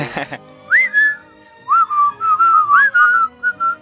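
A cheerful whistled melody, clear, with short rising and gliding notes in a bouncy rhythm, preceded by a brief burst of noise at the start.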